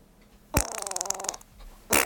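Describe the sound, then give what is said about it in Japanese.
A voice imitates flatulence with a loud, buzzing mouth fart lasting under a second, rapidly fluttering and wet, followed by a short sharp burst near the end; no talking. “ではね今日もね聞いてみようか今日はどんな口おならが聞こえてくるかな聞いてみよう”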